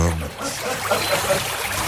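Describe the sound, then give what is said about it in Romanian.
Steady rushing water, a waterfall sound effect played on the radio, loud and continuous for the whole stretch, with a brief voice at the very start before the splashing roar takes over. “Mi-a scris un ascultător și că am făcut pișul de două ori înainte să plec de acasă, așa că poți să bagi cascade în radio, arată-mi ce poți.”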